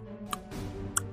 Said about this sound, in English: I don't have fingers. And it's really hard to snap my tongue. I've tried. It sounds like this.